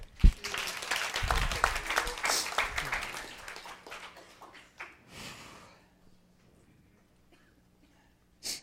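A burst of audience applause, dense and steady for a few seconds, then thinning out and fading into near silence with a couple of scattered late claps.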